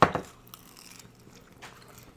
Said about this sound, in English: good nice crust. Crunch. Good chicken. The crust is amazing.